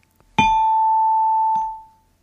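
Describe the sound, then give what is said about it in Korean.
A bright bell-like 'ding-dong-dang' approval chime from a quiz on the radio show Gayo Gwangjang rings out clearly on its own, one struck tone sustaining for over a second with a softer second strike before it fades away. “딩동댕 받은 분들과 추첨을 통해 뽑은 이행시 참여자 분들에게요.”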